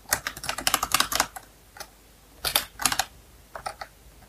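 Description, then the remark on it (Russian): Rapid keyboard typing while searching Google for a type of terrier, in quick bursts of sharp clicks: a fast run of keystrokes, a pause, then a few shorter clusters of taps. No one speaks. “Сейчас я загуглю, да?”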